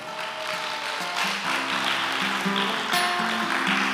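A crowd claps steadily for several seconds, a dense, even patter of applause mixed with sustained organ-like music chords underneath, with no voices over it.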